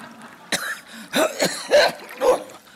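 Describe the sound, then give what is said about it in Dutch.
A series of four or five harsh coughs in quick, uneven succession, with a bit of wet throat-clearing between them and no talking, from a man coming up out of the water after swimming underwater. “Hoestend kwam hij boven.”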